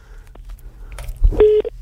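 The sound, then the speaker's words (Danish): Dialing the main number of the Nordisk Film Biografer service centre: a few faint clicks, then a short, steady electronic keypad tone lasting a fraction of a second over a low background rumble. No one speaks. “hvis vi ringer på deres hovednummer”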